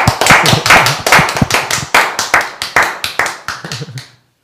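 A small group claps for a speaker after a talk, for about four seconds, the sharp, uneven claps fairly loud at first, then thinning out and stopping, with faint low murmuring underneath.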